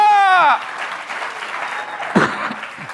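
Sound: audience applause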